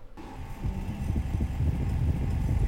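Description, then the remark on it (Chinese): A horse-drawn carriage rolls along, hooves clip-clopping in a steady, quick rhythm over a continuous low rumble, with a faint hum underneath. “但如果是在四百年前，取而代之的应该是马车声，街上应该还会有一些热情的小贩在叫卖吧。”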